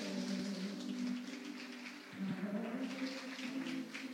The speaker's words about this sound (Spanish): En el nombre de Jesús, dele un aplauso fuerte al rey.